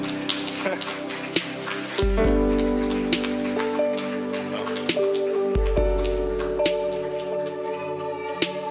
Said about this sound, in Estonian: teeme aplausi neile veel.